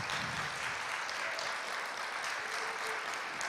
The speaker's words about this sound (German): Dann muss ich sagen, möchte der Herr und ich einen Applaus bekommen. Danke.